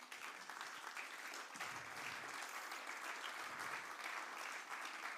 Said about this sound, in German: Mega cool, Tamara. Gebt ihr einen riesen fetten Applaus.